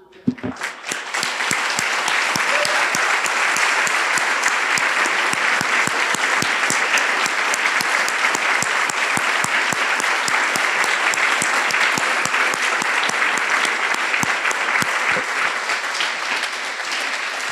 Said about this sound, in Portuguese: Aleluia! Ah, vamos aplaudir a Jesus.